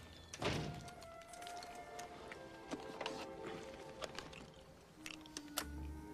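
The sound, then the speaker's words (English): A door shuts with a solid thunk near the start, followed by a few lighter clicks and knocks over a faint humming background, with no one speaking. “And close the door when you go because I don't want those mosquitoes coming in here.”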